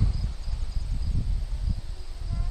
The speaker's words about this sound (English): Little crickets chirping. I don't know if you can hear them. Little cricket.